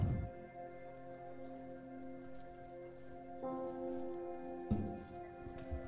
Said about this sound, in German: Ich habe mal sowas mitgebracht. Sechs Krüge und füllt sie mit Wasser.